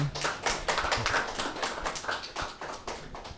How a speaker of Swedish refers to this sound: Mycket snälla människor allihopa här tycker jag. Ja. En applåd för dem.